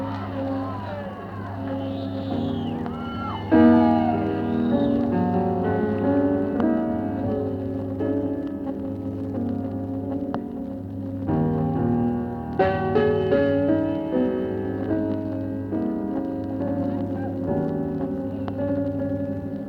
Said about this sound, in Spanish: Vamos a escucharla haciendo el tema ….